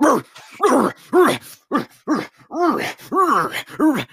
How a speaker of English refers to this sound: Um, so this horse barks. Uh, Interesting. at random time. there it goes. Uh, it's very loud and very annoying.